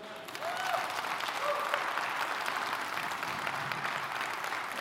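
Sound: audience clapping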